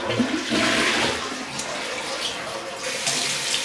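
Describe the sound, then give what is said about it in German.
A toilet flushes after someone urinates, a loud steady rush of water that swirls and gurgles for several seconds without letting up. No one speaks over it. “So, jetzt darfst du mir auch mal beim Pinkeln zuhören. Äh, warte mal, das wird laut.”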